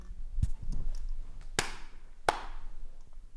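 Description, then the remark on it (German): Two sharp, bright hand claps, the second following the first after a brief pause, each snapping out crisply with a quick decay over a faint background rustle. “Oh, warte, wir oh. klatschen kurz.”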